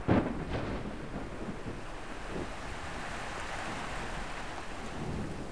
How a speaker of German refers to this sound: Bei den anderen sind Wolken aufgezogen, von weitem weg hören sie einen Donner und es fängt an zu regnen. So einen schönen, warmen Sommerregen.